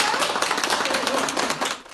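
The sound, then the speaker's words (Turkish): A crowd applauds steadily, many hands clapping in a dense, continuous patter of bright, sharp claps that stays loud throughout before easing slightly at the end, as an 80-year-old patient who recovered from Covid-19 is discharged from hospital and sent home. “Hastaneden evine alkışlarla uğurlandı.”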